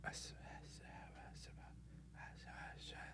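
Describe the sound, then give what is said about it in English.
A voice imitates eerie, breathy whispering heard around a tent at night, in a hushed stream of hissing syllables with no clear words, steady and low over a faint background hum. “So that night, just a side note, I, I heard what sounded like whispers around my tent. It was just kind of like”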